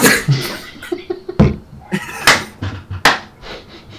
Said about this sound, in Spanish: es que encima avisas, o sea, yo cuando estornudo, a lo mejor es...